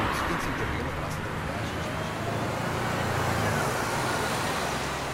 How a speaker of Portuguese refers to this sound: Há mais carros e mais gente a circular. O bairro de Alvalade acorda devagar, mas nesta segunda-feira acorda com mais vida. Isso vê-se e ouve-se.